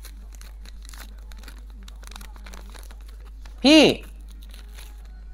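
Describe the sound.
Plastic wrapper being torn open, with faint, irregular crinkles and crackles running throughout, interrupted by a short, loud spoken exclamation near the end.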